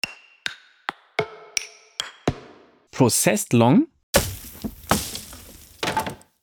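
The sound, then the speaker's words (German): In a music production, around seven crisp wood percussion signature sounds knock in an uneven rhythm, each with a reverb tail, followed by a brief spoken voice and a burst of dense, noisy sound. “Was ich echt geil finde, das sind so Signature Sounds, in dem Fall die Wood Percussions, einmal Reverb”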